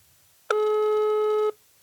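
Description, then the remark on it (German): A single steady telephone ringback tone sounds for about a second while calling someone and waiting for him to answer, clear and fairly loud, with a rich harmonic buzz and no voices around it. “Rufen wir jetzt Flo. Florian an. Wäre schön, wenn er abhebt.”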